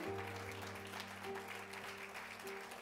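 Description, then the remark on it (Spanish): Sustained applause from a crowd giving an applause to the Lord, a dense steady clatter of clapping lasting the whole moment, with a low hum and faint tonal notes, likely organ or keyboard, beneath it. “Y dele un aplauso al Señor.”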